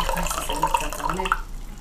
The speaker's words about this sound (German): Ich habe gerade Wasser eingeschenkt, das hat niemand äh, bisselt.